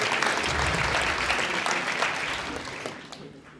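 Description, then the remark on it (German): An audience applauds in a dense, steady wash of overlapping claps that holds for a few seconds, then gradually thins and fades toward the end. “Das Prinzip ist klar, das kennt ihr noch von Applaus.”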